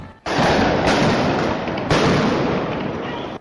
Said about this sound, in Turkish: El Aksa Camii'nde İsrail güvenlik güçleriyle Filistinler arasında çatışma çıktı. İsrail polisi taş ve fişek atan göstericilere ses bombasıyla müdahale etti.